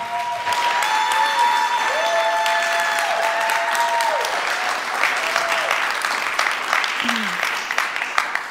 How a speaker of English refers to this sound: And hey, I want you to give it up and welcome my sister,